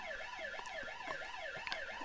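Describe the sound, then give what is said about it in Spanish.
An ambulance siren yelps in a fast, steady up-and-down warble, cycling about twice a second; it sounds a bit faint, with no voices over it. “Ahora aguanta que ya llegó la ambulancia.”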